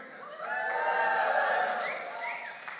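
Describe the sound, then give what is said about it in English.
A church audience cheers and whoops together during offering time, a sustained burst of many voices that swells quickly, holds for a couple of seconds, then tapers off. “See, only those that are from Vida really cheer.”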